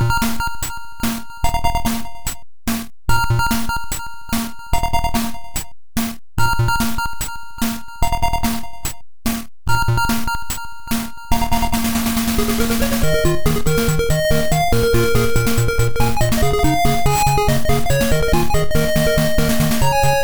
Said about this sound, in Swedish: Eh, spelet i sig var väl inte sådär jättefantastiskt. Det var vanligt sidoskrollande shoot em up, men eh, musiken fastnade i alla fall hos mig. Det låter så här på Commodore.